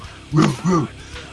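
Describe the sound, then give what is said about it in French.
A person imitates a dog barking with two quick, voiced yelps in a row, fairly loud, the second slightly drawn out, with no other talking. “puis là, il est là, puis il, brasse les bras, il, il, euh, jappe de, de côté, dans le”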